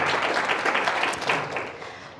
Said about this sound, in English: Uh, yeah, give them a round of applause. They're amazing.